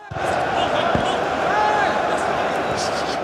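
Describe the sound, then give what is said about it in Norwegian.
Artificial stadium crowd noise added by producers to a football TV broadcast while stadiums were closed to fans during the coronavirus epidemic: a steady, dense roar at an even level, with a single dull thump about a third of the way in. “Men både i England, Tyskland og Spania har produsentene av TV-sendingene valgt å legge på falsk publikumslyd for å skape atmosfære.”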